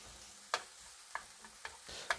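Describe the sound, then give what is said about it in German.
Onions sizzle steadily in a hot pan while a spatula spreads them, scraping and clacking against the pan a few times at uneven intervals, moderately quiet, with no talking. “Gut, jetzt die Zwiebeln hier verteilen.”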